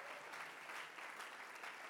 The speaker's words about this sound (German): Hey, und ihr Erlanger, ihr Nürnberger, komm, lasst uns mal unseren Freunden in Ansbach mal einen riesen, riesen, riesen Applaus geben. Ey, wir feiern euch so.